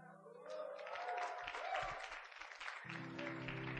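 An audience claps steadily for a few seconds to welcome the next speaker, a dense wash of many hands with some brief cheering tones mixed in, over a low steady hum.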